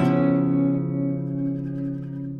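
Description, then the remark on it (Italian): A short intro theme jingle for a Mashable Social Media Day Milano special ends on a loud, sustained electronic chord that rings out with echo and slowly thins, with no voices over it. “Social Media Day 2018, Digital Innovation Day, ecco qui lo speciale, come avete sentito dalla sigla, delle interviste realizzate in quell'occasione.”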